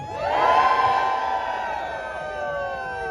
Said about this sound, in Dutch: Nou, je hoort het eh, gejuich. Eh, ja, mensen gingen er echt helemaal in op. Het was echt heel erg leuk om mee te maken.